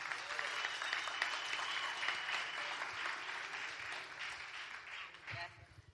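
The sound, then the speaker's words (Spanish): An audience at a church community gathering claps steadily for several seconds, a dense, even wash of many hands with no pauses, fairly loud throughout and tapering slightly at the very end. “Un aplauso, señores.”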